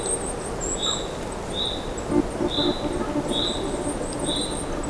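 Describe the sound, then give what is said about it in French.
Outdoor forest ambience at minus 6 to minus 7 degrees, with a steady low rustling hiss, over which a bird repeats short high whistled calls about once a second, with thinner, higher piping notes running above them. “C'est un forêt qui vibre par moins 6, moins 7 degrés.”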